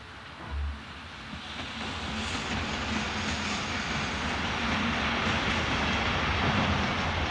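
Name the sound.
train departing on rails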